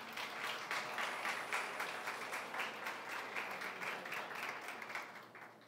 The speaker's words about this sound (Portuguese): Se você crê nisso, dê uma salva de palmas para o Senhor.